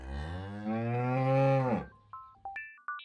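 A cow lets out one long, loud, drawn-out moo that swells and then cuts off, followed by a few short, bright electronic chime-like tones.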